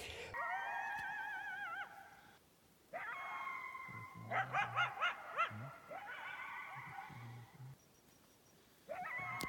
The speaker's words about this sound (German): die Hyänen so brutal laut äh, geschrien haben. Also geheult